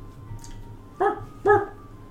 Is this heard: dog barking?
yes